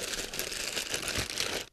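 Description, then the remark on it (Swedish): Steady crinkling and rustling of a plastic package, an online-ordered football match jersey, being unwrapped, dense and continuous for under two seconds before stopping abruptly; no one speaks. “Jag har här klickat hem.”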